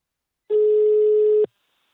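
A single steady electronic telephone ringback tone sounds for about one second while a call is placed to the company Invacare. It is clear, then cuts off abruptly into silence.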